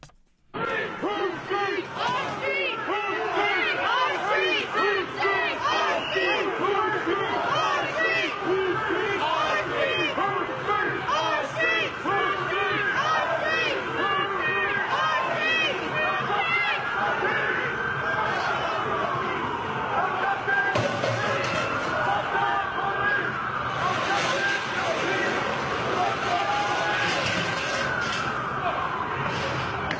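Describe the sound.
A dense crowd of protesters opposed to Donald Trump shouts and yells continuously while clashing with police around the Capitol, trying to block guests from reaching his swearing-in ceremony; many overlapping voices form a loud, chaotic roar with occasional sharper cries rising above it.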